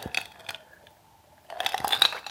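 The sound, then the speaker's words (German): Ice cubes clink and rattle against a glass in two bursts, fairly loud, with a quiet gap between as someone takes a drink of diet cola (Cola Light) with ice cubes. “Hört sich an wie ein Gin Tonic, ist aber nur eine Cola Light mit Eiswürfel.”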